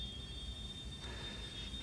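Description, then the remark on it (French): A freight train carrying containers rolls steadily past with a continuous low rumble and clatter, a faint high-pitched wheel whine running throughout; the sound is even, with no voices. “Ça fait une heure que je regarde ces containers passer devant moi.”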